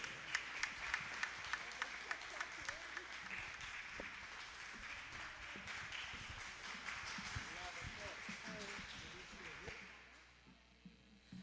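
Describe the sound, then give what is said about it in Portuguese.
A church audience in Pindamonhangaba applauds steadily to welcome a pastor and glorify Jesus, a dense wash of many hands clapping with sharp individual claps standing out, mixed with scattered voices, then fading out toward the end. “O bom é que pelo menos um aplauso aqui eu tenho, né?”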